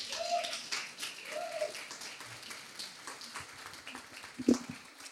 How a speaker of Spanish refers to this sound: Gracias por eso vamos a, sí, aplauso fuerte, aplauso fuerte, en lo que yo tomo agua también.